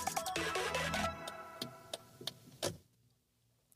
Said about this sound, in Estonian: Nonii, äh, suunatule vilkumine, klõpsimine sai läbi